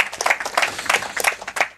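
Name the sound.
applause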